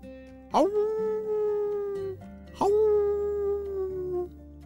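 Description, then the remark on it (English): Two long, drawn-out wolf howls sound from very far away during a snowstorm, one after the other, each rising sharply then holding a steady, slowly falling tone for about two seconds, with no voices present. “The sound of the wolves howling was from very far away.”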